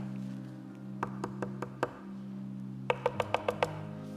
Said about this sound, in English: You know what that is? That's worry knocking on your door. You know what that is? That's faith knocking on your door.